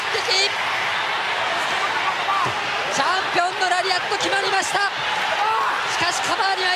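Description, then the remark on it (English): A loud, steady roar from a wrestling crowd cheering and chanting Kobashi, with many voices rising and falling together in chant-like swells that stay unbroken for the whole stretch. “you hear that crowd?”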